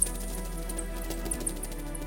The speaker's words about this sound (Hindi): नीलगिरी का जंगल जुलाई की पहली बारिश पाकर गुलाब के फूल की तरह खिल उठा था